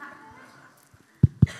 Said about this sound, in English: You're getting claps before you even start.